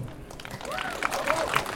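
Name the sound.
audience applauding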